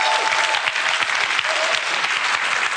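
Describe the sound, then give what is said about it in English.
Sustained applause from a large audience at an event in the UK, clapping for the event's organiser. A dense, steady wash of many hands clapping with a bright, hissing texture and no pauses lasts the whole few seconds. “I think we should all give Chris a massive round of applause because how amazing it that we have an event like this in the UK.”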